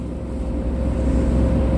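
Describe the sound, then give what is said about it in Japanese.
Steady, low engine and road rumble inside a car being driven at night while snow is falling, a constant droning hum that fills the whole moment with no voices and no breaks. “そして今夜も相変わらず車を運転しながら収録しておりますよろしくお願いします”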